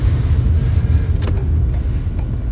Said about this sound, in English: That's funny when you when you put the brakes on like that, the doors close, eh? They lock.